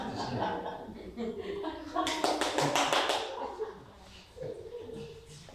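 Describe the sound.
A brief burst of about seven or eight quick, sharp hand claps in a steady rhythm, heard over people talking and chuckling, with talk continuing before and after.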